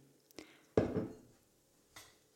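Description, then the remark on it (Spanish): Cold brew coffee, diluted with a little water, is poured into a glass with lime slices in one short, splashy burst that fades within about half a second, framed by a couple of soft glassy taps. No one speaks. “le voy a poner unas rodajas de lima y luego ya echo directamente el cold brew, que en este caso está ya diluido con un poquito de agua, porque como os digo, el cold brew tiene muchísima cafeína y hay que diluirlo un poquitín.”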